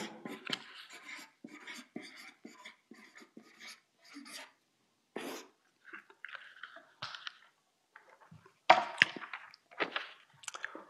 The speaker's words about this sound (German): Ich schreibe jetzt einfach mal da Erinnerung.